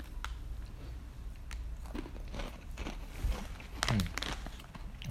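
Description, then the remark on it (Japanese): Crunchy chewing of a snack, with repeated sharp crackling bites in an irregular rhythm and a few louder crunches near the end, with no talking. “まあでもせっかく無限列車の夜なので今日は、まあ、これもちょっとポリポリ食べながらダラダラしたいなという感じですね。”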